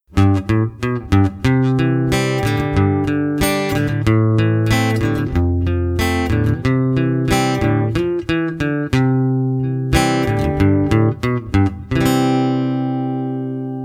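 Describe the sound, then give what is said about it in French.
A chord progression starting from C plays on a keyboard-like instrument: a steady series of loud, ringing struck chords with a few quick note flourishes, ending on one long sustained chord that fades out. “On va rejouer cette suite d'accords en partant cette fois-ci du Do.”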